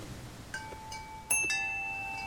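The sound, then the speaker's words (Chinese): The glass door of a small bento shop is pushed open, setting off a few bright, ringing bell chimes that strike in quick succession and hum on steadily; no one speaks. “食神推开了玻璃门，”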